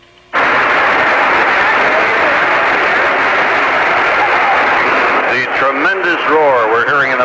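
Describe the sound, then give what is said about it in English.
A loud, steady roar of natural gas rushing from a main broken by a construction drill at Battery and Sacramento in downtown San Francisco's financial district starts abruptly and continues without letup; near the end, someone begins talking over the hissing blast. “background right now is the sound of natural gas escaping from a main that has been broken right in the heart of downtown San Francisco, in the heart of what is called the financial district.”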